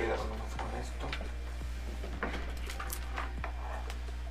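A chair is shifted around, giving several short wooden knocks and scrapes spread over a few seconds, with a steady low hum behind them.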